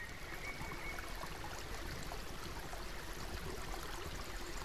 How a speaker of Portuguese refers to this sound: Entramos na piscina e encostamos a cabeça na nascente. Ficamos assim, ouvindo o suave curso do rio, e seguimos com ele.